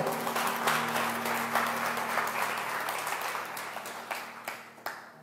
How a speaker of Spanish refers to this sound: Un aplauso a mi ayudante, hombre, por favor. ¡Fuerte!